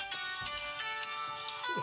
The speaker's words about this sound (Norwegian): da har vi en liten telefon som eh, ringer. Litt sånn pausemusikk.